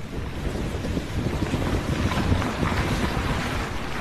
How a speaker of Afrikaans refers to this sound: waar die woonbuurt se strate gewoonlik oor naweke gevul is met musiek, kan slegs die klank van reën en die voetstappe van een of twee mense gehoor word.